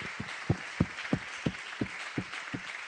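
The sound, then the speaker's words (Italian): A crowd applauds together in praise and adoration of the Lord, with steady rhythmic claps, roughly three per second, standing out over a continuous wash of clapping from many hands. “Facciamo un applauso al Signore, un applauso di lode, di adorazione, perché questo ci dà speranza.”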